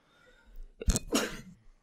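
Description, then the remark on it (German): A single sneeze rings out, a quick sharp intake followed by a bright, forceful burst of breath, with nothing else around it but a faint, quiet background. “Gesundheit.”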